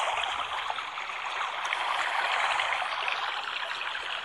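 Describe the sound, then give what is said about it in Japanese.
A steady, continuous babbling of a river stream, water rushing and trickling with a bright, dense wash of sound that stays even throughout, fairly loud, with no voices; a recording about three hours long, played at maximum volume as background for a livestream. “川のせせらぎ音をバックに初めての配信をしたいと思います。”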